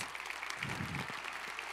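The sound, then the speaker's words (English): Steady audience applause for six award winners, a dense wash of many hands clapping at a constant level throughout, with no voices standing out above it. “Let's give all of these a big round of applause.”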